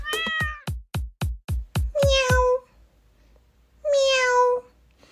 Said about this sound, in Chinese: 这突如其来的猫叫声把所有的小老鼠吓得四处窜逃。